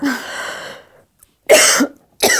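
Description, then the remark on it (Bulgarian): A person coughs hard after choking, a rough hacking burst followed by a pause and then two more sharp coughs. “Само задавих се.”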